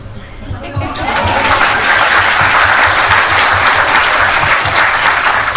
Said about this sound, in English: It's so hard to clap while holding a mic